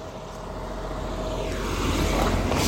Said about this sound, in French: Attends, il y a encore une voiture, attends, attends, attends, mets-toi là,